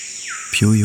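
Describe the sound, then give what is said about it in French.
A loud, ringing bird whistle, the song of the screaming piha (Lipaugus vociferans), in tropical forest undergrowth, swoops down then sharply upward over a constant insect buzz, with a low voice-like tone near the end. “Le lipogus vociférance.”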